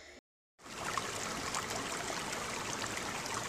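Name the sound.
river water flowing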